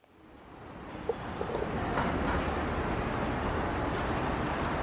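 Steady engine rumble and road noise from inside a moving Macrobús rapid-transit city bus on Calzada Independencia, swelling in over the first seconds and holding loud and even, with a few faint clicks and rattles and no talking.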